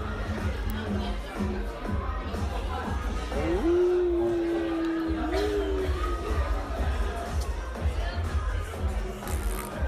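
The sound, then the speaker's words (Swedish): A man makes a short, buzzy mouth-fart noise lasting a couple of seconds, set against a steady background of crowd chatter and murmuring in a karaoke restaurant. “Eh, och säger “Bu” och sen vrider han tillbaka och så avslutar han med att göra ett litet pruttljud.”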